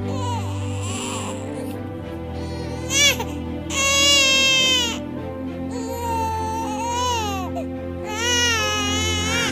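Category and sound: human body sound, newborn baby crying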